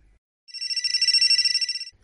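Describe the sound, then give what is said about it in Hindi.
A mobile phone rings with a bright, trilling electronic tone for about a second and a half, loud and close, with no voices over it. “क्या हुआ किसका फोन था”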